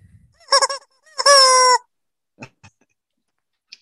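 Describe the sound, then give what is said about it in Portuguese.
A young hen (pullet), the show's mascot Eusébia Matoso, calls twice: a short, stuttering squawk, then a longer, loud, drawn-out cry. A few faint clicks and taps follow in otherwise quiet surroundings. “Não, ela tá falando pro Rafael que ela é uma franga, não é uma galinha.”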